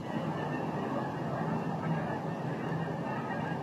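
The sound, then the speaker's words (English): A large flock of more than forty geese honks continuously, their overlapping calls forming a dense, steady chorus, with no voices over it. “We have to pause while we take a sip of wine and listen to the geese.”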